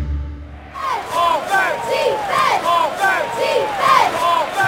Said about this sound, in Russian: Спортивный матч вот-вот начнется. Полный стадион болельщиков. Трибуны ревут в предвкушении спортивного батла.